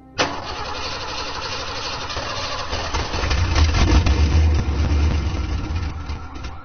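Lisa's small pink car, license plate number 333, turns over and catches in heavy rain, then settles into a steady rumble that swells louder midway through before easing slightly, with no voices.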